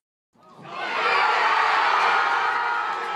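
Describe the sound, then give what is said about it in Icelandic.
A crowd at a tennis club in Bromley, on the outskirts of London, England, bursts into loud cheering and shouting to celebrate an 18-year-old player's win in an open tennis tournament, rising quickly from silence and holding steady as a dense, continuous roar of many voices. “Fagnaðalætin í tennisklubnum í Bromley útkvarfi höfuborgarnar hefðu undir venjulegum kringumstæðum ekki ratað í landsfrettinnar í Brellandi.”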